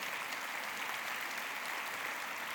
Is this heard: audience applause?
yes